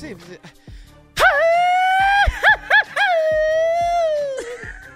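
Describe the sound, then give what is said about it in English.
A person lets out a loud, high-pitched howling yell, held for a few seconds with wavering yips in the middle, imitating a coyote's howl before trailing off. “That sound like nah, a coyote.”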